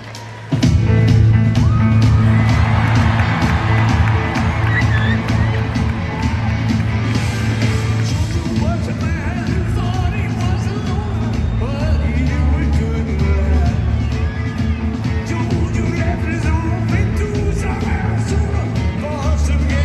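A live concert song captured from far back in a venue, with thumping bass and band music blurred into steady crowd noise and cheering that stays loud throughout.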